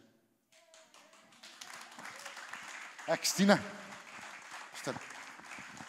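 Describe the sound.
Brisk clapping from a nearby person, an eager burst of applause with a few louder claps in the middle, while someone speaks over it.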